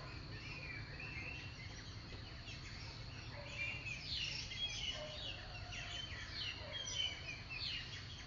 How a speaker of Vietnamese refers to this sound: Mình sẽ được nghe mấy con chim ríu rít trên cành hồng trước nhà Đây là một đặc ân khi mình sống tại nhà nhỏ Ngay giữa trung tâm thành phố Đà Lạt Mà xung quanh bốn bề đều là cây